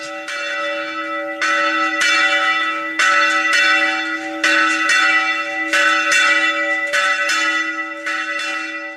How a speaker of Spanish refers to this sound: La alegría de la fiesta la manifiesta el canto apasionado y floral del mirlo, pero lo solemniza y le da trascendencia el sonar solemne de las campanas.